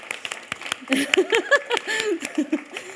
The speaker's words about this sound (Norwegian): Ja, vi kan gi det en klapp.